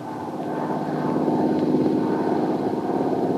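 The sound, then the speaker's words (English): Steady propeller airplane engine droning in flight as the plane, bound for New York, nears its destination; a continuous throbbing hum that swells slightly louder partway through and holds, with no voices present. “And now, as the plane nears its destination.”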